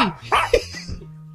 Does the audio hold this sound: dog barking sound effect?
yes